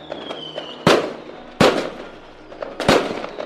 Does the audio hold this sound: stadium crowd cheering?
no